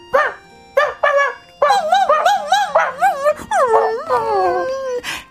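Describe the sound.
Late at night, a person who has just come home imitates a dog outside a small room by the gate. They give a few short barks, then drawn-out, wavering whimpers and howls, loud, with no other voices.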